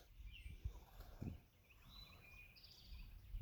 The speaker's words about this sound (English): I'm sitting here at our Main Farm in Limestone, Tennessee. Also on the back of my farm truck, looking around, listening to the birds